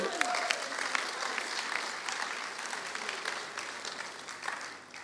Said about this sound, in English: Let's give him a hand this morning.